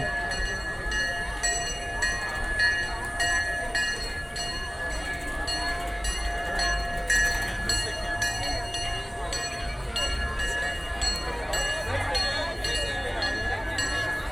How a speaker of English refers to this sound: Train pulling back into the station. It's good to see that it's working again. It had been down for refurbishment for a month or so. They enhanced the quality of the sound.